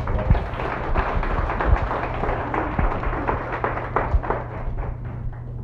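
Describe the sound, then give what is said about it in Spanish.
Steady applause from a group fills the whole stretch, a dense patter of many hands clapping at once with a few sharper, louder claps standing out, gradually thinning slightly toward the end. “Dale un fuerte aplauso”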